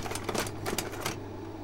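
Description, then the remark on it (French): A slide projector clacks through its advance mechanism as a teacher shows slides during a class, a quick run of sharp mechanical clicks, then settles into a steady low hum with no one speaking. “Bon, je vais vous passer quelques diapos.”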